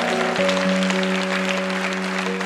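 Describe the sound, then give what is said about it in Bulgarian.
A church audience applauds God in a steady, dense wash of clapping that continues throughout, while sustained keyboard or organ chords hold underneath; no one speaks. “О, хайде църква, нека да ръкопляскаме на Бога за това нещо.”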